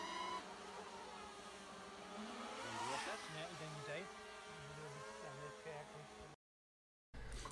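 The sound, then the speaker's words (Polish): A steady, high-pitched mechanical buzz of a few drones hovering in the air, their motor whine wavering slightly in pitch, continuous before a brief cutout near the end. “Tam mamy też parę dronów w powietrzu.”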